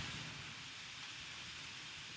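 Steady rain falls continuously, a soft, even hiss with a low rumbling undertone, fairly quiet and unbroken throughout, with no voices.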